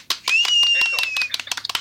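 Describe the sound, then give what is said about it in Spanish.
A short burst of brisk applause on La Chanfaina, with a high whistle-like tone riding over the first half, thinning out into a few scattered, separate claps at the end. “¡Aplausos!”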